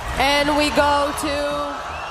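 An audience at the Eurovision Song Contest in Tel Aviv boos after Iceland's singers display a Palestinian flag on camera, loud, sustained, echoing overlapping voices that hold steady for the full two seconds with no break.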